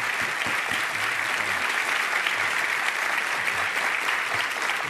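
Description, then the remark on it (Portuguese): An audience claps steadily for about five seconds, applauding a moment of Brazilian and world cinema history, a dense, even wash of many hands with no pauses or voices rising above it. “Pode aplaudir que isso é história do cinema e não só do cinema brasileiro, do cinema mundial.”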